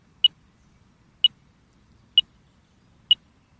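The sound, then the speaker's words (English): Four short, high-pitched electronic beeps sound at steady intervals of about a second, clear, over a faint low rumble of outdoor background noise: a magnetometer beeping each time it takes a reading of the magnetic field while surveying a grid. “the beeping that you can hear is just telling us that the instrument is working. Every time it takes a reading, we get the beep”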